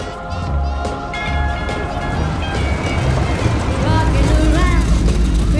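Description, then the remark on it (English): A muffled pop song blasting from a loud stereo inside a house during a party, heard from outside, plays at a steady level, dulled through the walls, with a short slapping echo from outdoor early reflections. “In this first shot from the outside, from the burglar's perspective, we hear the song slightly muffled, and you can hear some slapping reverb with outdoorish early reflections, we call them, to give the sense of what a loud stereo inside the house”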